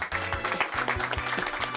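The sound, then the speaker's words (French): An audience claps steadily for a live music programme, a dense, continuous patter of many hands, with a low hum running beneath the applause. “c'était fabuleux comme programmation. Merci Alexandra, on l'applaudit”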